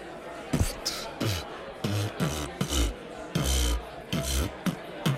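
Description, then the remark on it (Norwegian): Someone beatboxes alone, a steady rhythmic string of deep mouth thumps alternating with hissy, breathy snare-like bursts, roughly a dozen hits over a few seconds at moderate volume. “Hei, du, jeg har begynt med beatboxing i det siste. Har du lyst til å høre?”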